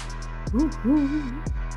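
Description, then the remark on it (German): A voice imitates an owl's hoot: two wavering, low vocal calls in quick succession, moderately loud, with no other sounds around them. “Das sollte eine Eule sein, das war keine gute Eule.”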